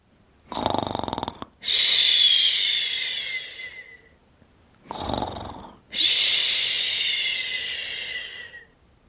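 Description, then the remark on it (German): A sleeping boy snores twice, loud: each time a rough, rattling inhale, then a long whistling exhale that slowly fades. No one speaks. “Nun sieht Tami, wer hier solche Geräusche macht. Es ist …. Mit der Decke bis unter die Nase schläft er noch, tief und fest.”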